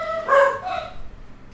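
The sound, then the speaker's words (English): A household dog barks in a short burst, one sharp bark peaking early followed by a softer second yelp, slightly muffled with no one talking. “And that was our dogs. Our dogs are barking.”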